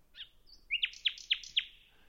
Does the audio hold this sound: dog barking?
no